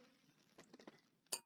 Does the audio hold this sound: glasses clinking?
yes